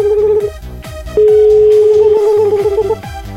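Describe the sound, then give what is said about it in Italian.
An outgoing call's ringback tone: a steady mid-pitched beep that breaks off briefly, then sounds again for about two seconds, over a thumping rhythmic music bed. “Ultimo squillo e lo fanculizziamo.”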